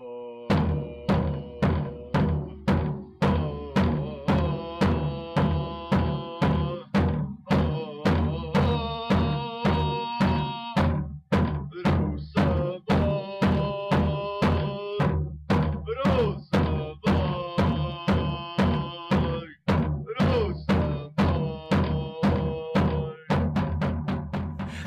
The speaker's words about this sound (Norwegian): Altså. altså stakkars mann som sitter oppe i høyblokka på Tempe og sitter med tromma si. Det er jo helt, helt krise.